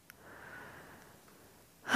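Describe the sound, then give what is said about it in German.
A long, airy breath drawn deep into the belly, a brief pause, then the start of a loud, rushing exhale as the breath is let out. “Wir atmen nochmal durch.”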